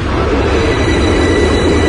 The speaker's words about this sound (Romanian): Alte două minute a durat să cobor pe peron și apoi să ajung la suprafață. Așa, am coborât din metrou.